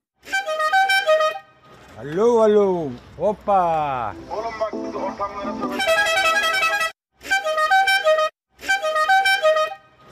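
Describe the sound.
Loud homemade horns blare in repeated bursts, some with swooping, siren-like pitch bends, others steady and brassy, with brief silences between blasts and a man's voice speaking briefly.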